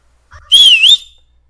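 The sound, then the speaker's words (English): A single loud, clear whistle lasting about half a second, rising and dipping in pitch before trailing off, given to greet guests at Faith Studio 1 in central downtown Fort Worth, with no talking. “Whistle at them.”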